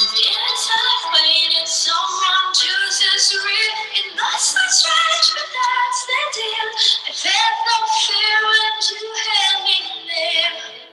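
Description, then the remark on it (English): A dark, angsty 90s-style rock song plays steadily and fairly loud for the whole stretch, dominated by a bright, wavering sung melody with little deep bass or obvious drum hits. “It sounds like it could be like an like an angsty 90s like … or something kind of like super dark downer jam”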